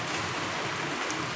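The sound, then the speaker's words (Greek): Steady rain falls outdoors on a rainy day outside the Benaki Museum, a dense, even hiss of countless drops spread across the whole sound with no pauses, moderately loud, with no voices. “Αυτό που ακούτε είναι βροχή. Είναι μια βροχερή μέρα.”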